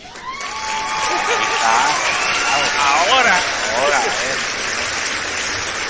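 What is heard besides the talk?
applause sound effect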